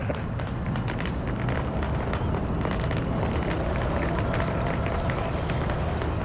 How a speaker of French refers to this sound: voilà, on en a tourné en 10 ans des, reportages, mais on n'était jamais venu enregistrer l'eau du confluent. On est donc pile poil entre Rhône et Saône.